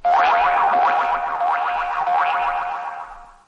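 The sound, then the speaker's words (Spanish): The time-signal gong of the radio programme Hora Veinticinco rings out once at twelve o'clock, a loud, resonant mid-pitched tone with shimmering, wavering overtones that slowly fades over a few seconds, with no voices. “A las doce en punto sonaba el histórico y legendario gong de hora veinticinco.”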